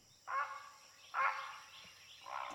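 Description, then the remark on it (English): A great blue heron gives three harsh, raspy squawks spaced about a second apart, each a rough croaking burst at moderate volume, with no talking. “I think that is the absolute perfect segue into our discussion about the bird of the day, the great blue heron.”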